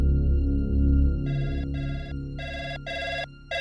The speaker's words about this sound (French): Le téléphone de la police ne cesse de sonner.